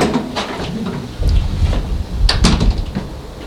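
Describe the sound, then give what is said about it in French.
A building's front door being opened: a low rumbling thud as it starts to move, followed by a couple of sharp latch clicks and a clatter, with no voices. “Et j'ouvre la porte de l'immeuble.”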